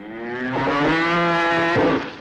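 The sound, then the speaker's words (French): A single long, loud cow moo, rich and droning, holding steady for about two seconds before trailing off, with no one talking, from the French TV advert 'La vache dans le placard' for Régilait powdered milk, first aired on 1 October 1968 among France's first TV commercials. “Plus exactement, le 1er octobre 1968 à 9h55, avec la pub La vache dans le placard par Régine.”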